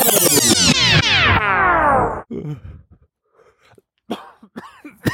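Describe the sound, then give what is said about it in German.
A long, loud, groaning yawn slides downward in pitch for about two seconds, then breaks into several rough, scattered coughs and throaty bursts, with no talking. “Oh, das Schlimmste, wenn man gähnen muss und dann kommt der Husten.”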